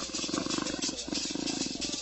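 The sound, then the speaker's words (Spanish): A deep, sustained farewell roar of a dying puma, with a rough, rumbling growl that pulses steadily for about two seconds, loud and without any talking. “y moribundo, se despidió de Luna y de los demás integrantes de la tribu Chichihuay con un enorme rugido en él.”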